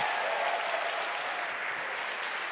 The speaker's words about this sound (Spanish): ¿Cuánto lo creen? ¿Cuánto lo creen? Da un fuerte aplauso al que vive.